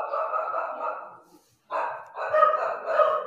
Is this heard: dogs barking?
yes